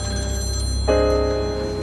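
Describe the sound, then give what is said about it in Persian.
A telephone rings once partway through, a bright bell-like tone that starts sharply and rings on steadily over a low background hum. No one speaks. “گوشی بردار برو گوشی بر نمیداری اتفاقی افتاده”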